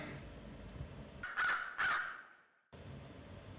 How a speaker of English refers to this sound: Is that a bird? I think it's a crow. How did it get here? I. I don't know.